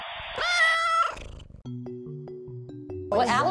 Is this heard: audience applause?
no